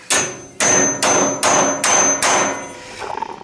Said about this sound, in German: Die Kaffeemaschine hat nicht funktioniert und er hat mit dem Hammer drauf. Ja, wie soll ich das denn sonst das machen? Außerdem ist das ein spezieller Hammer.